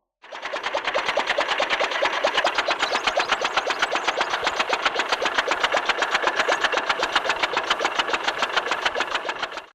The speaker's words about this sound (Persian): سر و کله آقای فورد با یه وسیله عجیب غریب تو خیابونای دیترویت پیدا شد یه چیزی شبیه به کالسکه با چهار تا چرخ و یه موتور بنزینی کالسکه ای که اسب نداشت ولی تق تق صدا میکرد و راه میرفت